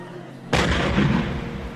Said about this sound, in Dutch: Eindelijk liet zich een eerste kanonschot horen. Plots heerste de diepste stilte onder de ontelbare menigte. Het aantal schoten was belangrijk.